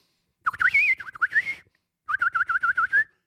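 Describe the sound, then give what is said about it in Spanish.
A person whistles a bright, warbling tune imitating a little bird in two bursts, the second a quick series of repeated chirpy trills, clear with no talking. “y después sale el, sol al otro día y usted hace como, como un pajarito.”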